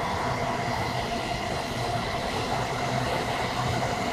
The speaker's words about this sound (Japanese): 電車っすね。っていうね。